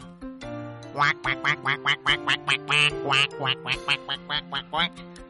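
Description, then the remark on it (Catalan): A duck quacks loudly and rapidly, a dozen or more nasal quacks in an unbroken, bouncy rhythm, over a soft, steady musical backing. “L'ànec, que la vol convèncer, agafa empenta i comença.”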